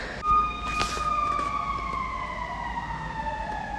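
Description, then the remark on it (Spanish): Emergency vehicle sirens wail steadily from outside, their tones gliding slowly downward as they pass, over a low rumble of traffic, with a brief knock near the start. “No sé si se escuchan las sirenas”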